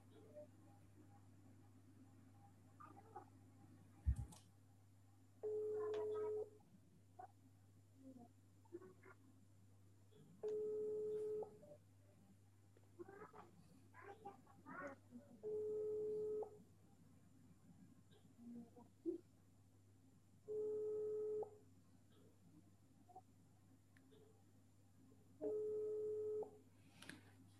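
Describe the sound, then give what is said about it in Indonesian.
A telephone rings out repeatedly as a host on Edream Radio calls an Ustaz during an interactive segment, in long, steady tone bursts about every five seconds, with a constant low hum and scattered clicks and faint movement between the rings. “Saya coba hubungi hubungi eh, hubungi hubungi lagi Ustaz ya.”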